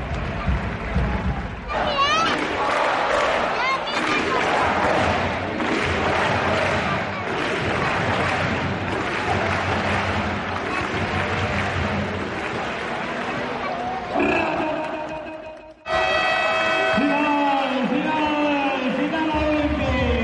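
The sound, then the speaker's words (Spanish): A packed crowd of Badalona fans roars and cheers loudly and continuously at the Olímpic arena, with many voices shouting and chanting together; after a brief drop near the end, the crowd surges back into rhythmic sung chants of "Visca la Peña, Visca Badalona" and "Peña, Peña". “Pues tenemos unos audios del Olympic el otro día rugiendo”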